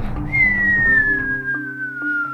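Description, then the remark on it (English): A thin, high whistling tone of wind glides slowly downward for a couple of seconds over a low, steady rumbling drone, fairly loud, with no voices: the wind whistling past Dorothy's ear as she spins swiftly through the air after clicking her heels. “As soon as she clicked her heels together and said the magic words, not please, Dorothy was sent spinning through the air so swiftly that all she could see or feel was the wind whistling past her ear.”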